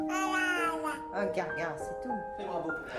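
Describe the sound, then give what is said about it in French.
A baby babbles in drawn-out, sing-song vocal syllables such as da, be, re, rising and falling in pitch over a few seconds with short breaks between sounds. “Plus le bébé babille, plus nous l'imitons, dit Marie d'Arieu-Sec.”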